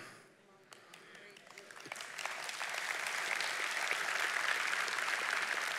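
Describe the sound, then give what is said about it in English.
An audience breaks into applause, starting with a few scattered claps and swelling within a couple of seconds into steady, dense clapping from many hands that continues at full strength. “Now, before you clap, you need to know the truth.”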